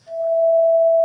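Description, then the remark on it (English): A single steady pure sine tone at three halves the frequency of A440, a clear E a perfect fifth above the A, sounds alone for about a second at a constant, fairly loud level, then cuts off abruptly with a slight click. “We can play a sound, play the same A. We can multiply it by three halves.”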